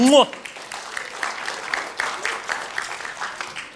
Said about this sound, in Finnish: Aika hyvin se on. Antakaa aplodit itsellenne.